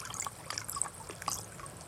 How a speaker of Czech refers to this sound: Řeka teče. Místo stálé, přitom neustálá změna.